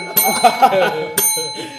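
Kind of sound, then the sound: signal or alarm, bell ringing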